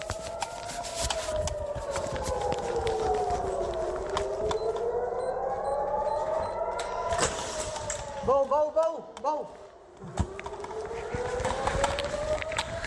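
Air raid sirens in Israel wail in long, slow rising and falling sweeps, loud and continuous throughout, with a brief burst of short chirping tones partway through and faint background noise underneath.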